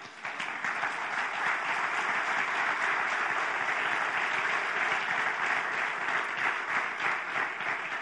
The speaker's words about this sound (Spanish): Y si usted lo cree, le da un aplauso.